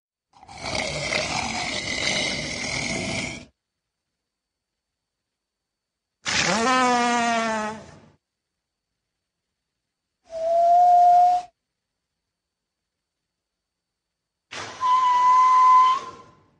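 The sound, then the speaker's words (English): Walrus vocalizations: four separate loud calls broken by silences, a long rough roaring blast, a wavering whistle-like moan, then two shorter steady whistling tones, with no talking. “Well, here's like 20, 20 seconds of some some good walrus sounds.”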